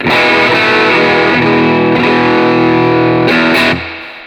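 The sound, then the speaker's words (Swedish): A loud, heavily distorted electric guitar played through a distortion pedal with its tone control switched off plays sustained chords with a thick, buzzing tone, shifting pitch a few times before the sound cuts off and rings down at the end. No one speaks. “Nu rör du, nu sveper du eh, tonkontrollen. Ja, va? precis. den är på. Stänger av den då.”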